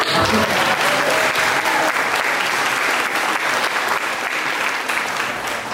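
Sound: audience applause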